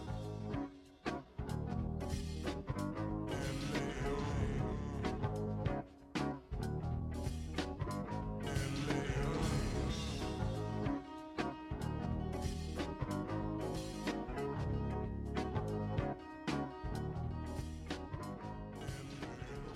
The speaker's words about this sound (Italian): quando si è rotta la corda ho detto ragazzi, 3, 2, 1, sigla.